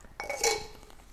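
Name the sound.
dishes clinking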